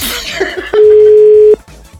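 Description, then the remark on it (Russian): A single steady ringback tone sounds on a phone line, one clear, loud, low-pitched beep lasting under a second, surrounded by faint line noise and quiet background murmur. “в первый раз в жизни звоню”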